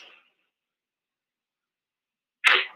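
A car rushes past as a sudden loud whoosh that breaks near silence and cuts off abruptly, with a faint trailing rush at the very start.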